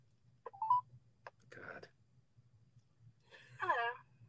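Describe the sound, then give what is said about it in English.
Telephone dialing tones heard through a speakerphone while calling an Omaha Google Voice number: a few short electronic beeps and bursts over a low steady hum, followed by a brief tinny voice-like sound from the phone. “Um, what happens when I call this? What does it sound like?”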